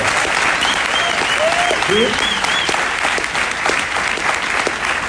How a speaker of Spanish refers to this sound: Así que den un aplauso a sus líderes por lo que están haciendo por el mercado.